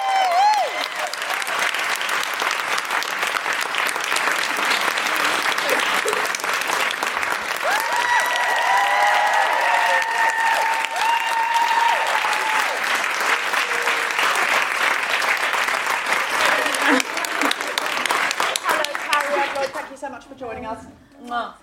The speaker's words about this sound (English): Very yeah, slow. it took Cariad a while to get to the stage. That's why I started. I didn't want the applause to die